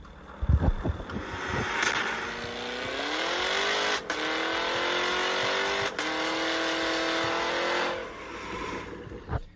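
A 2022 American luxury sports car engine starts with a few low thumps, then settles into a deep, steady rumble whose pitch rises as it revs, holding loud before easing off near the end.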